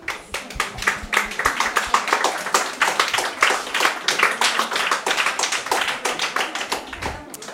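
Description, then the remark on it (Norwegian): A crowd at a health day event claps steadily, dense overlapping hand claps forming a continuous, fairly loud round of applause that holds for several seconds without anyone speaking. “Applaus, folkens.”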